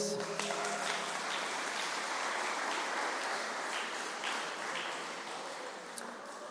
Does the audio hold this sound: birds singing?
no